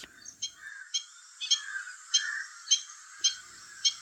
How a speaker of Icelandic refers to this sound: Þetta er bónefur. Hann er svo litið stór og mjög fallegur, aðeins líkur spóa en samt ekki. Hann sást á stokkseri í april.